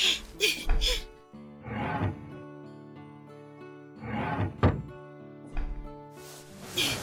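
A drawer is pulled open and rummaged through while searching for a pregnancy test, with several wooden thumps, scrapes and rattles in uneven bursts separated by brief quiet pauses.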